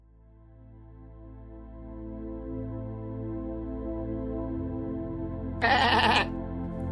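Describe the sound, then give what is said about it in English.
An endless stream of robotic sheep: a synthetic, robotic-sounding sheep bleat with a steady buzzing harmonic drone that swells gradually in loudness, then a brief bright, harsh burst near the end. “The endless stream of robotic sheep winds their way through your mind,”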